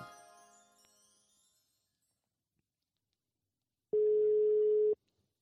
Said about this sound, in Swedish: Och så ringer vi upp en ny gäst. Sista kanske.